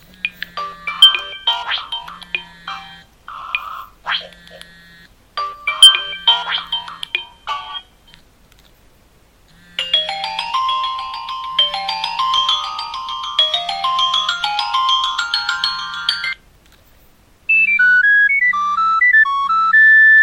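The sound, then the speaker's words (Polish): Nokia N82 mobile phone ringtones play one after another: chiming melodic tones, then a dense rising and falling electronic melody, and a brief third tune at the end, loud with no talking. “nie byłoby możliwe odsłuchiwanie poszczególnych dzwonków”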